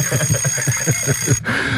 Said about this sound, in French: J'entends la cloche.